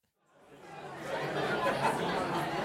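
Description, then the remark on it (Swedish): Noisy crowd chatter in a rowdy beer pub with an audience fades in and settles into a steady murmur of many overlapping voices, with occasional brief laughs, at moderate volume. “men lite så, här, så, att man hör att vi är i någon så här öl, stimmig ölschapp liksom, med lite publik och lite så att det stimmar och stojar”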